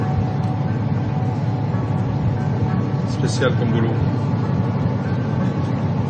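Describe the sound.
A ship's winch runs with a steady, low mechanical drone that holds for the whole stretch, while a man speaks briefly over the constant hum.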